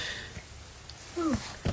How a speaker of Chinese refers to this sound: 哦，还有猫咪。 你你为什么说？ 对，为什么它怎么进来的？门不是关着的吗？